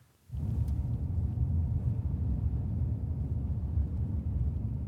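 A steady, loud low rumble of road noise begins abruptly after a brief quiet moment and continues evenly as a vehicle cruises at speed on the Sydmotorvejen motorway past the fields and forests of Zealand, Denmark, with no voices.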